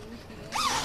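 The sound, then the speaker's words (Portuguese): A made-to-measure zipper, 55 centimetres long, is pulled in one quick stroke, a bright rasping zip that starts abruptly after a brief quiet moment and fills the rest of the short clip. “Agora vou fazer um fecho, que hoje fecho por medida, é porque fazemos fecho por medida qualquer um tamanho.”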